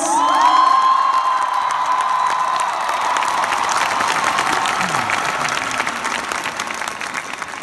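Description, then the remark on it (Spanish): A crowd applauding a group of women creators, artists, composers and performers bursts into sustained applause with cheers and a high whistle at the start, the dense clapping staying loud and steady throughout before easing slightly near the end. “Un aplauso para cada una de ellas.”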